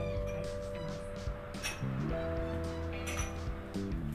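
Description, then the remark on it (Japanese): Two small Rirarex glass cups, set out for tasting two teas, clink lightly a few times as they are set down, over a steady background of soft sustained tones. “で今コップを2つ、えー、リラレックスのガラスの小さいコップを2つ用意しました30秒経ったらこの2つのお茶を”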